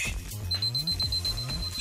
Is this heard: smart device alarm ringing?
yes